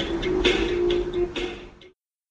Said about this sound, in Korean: 맞아요. 땡땡 종소리 들어갔어요.